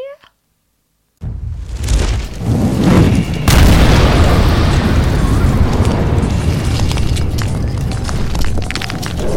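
After a brief silence, a fireball explosion about 30 feet away bursts in with a deep, roaring boom, followed by a second blast and a long, loud rumbling roar that stays heavy to the end.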